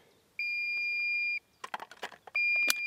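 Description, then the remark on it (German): A battery-powered fawn-rescue device, mounted on a pole about 1.5 metres tall pushed into the ground in grass, gives two long, steady, high-pitched electronic beeps, loud and piercing, separated by a pause filled with brief rustling and clicking handling noises. “piept es da so vor sich hin.”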